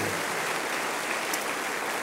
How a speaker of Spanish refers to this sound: Denle un aplauso al Señor. oh, gloria a Dios.